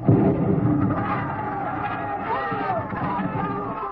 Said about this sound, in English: Mr. and Mrs. William Travis stood on the edge of the yelling crowd, smiling.